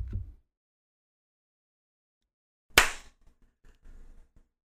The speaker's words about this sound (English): Clap on twenty. Okay. Yeah, clap on 20.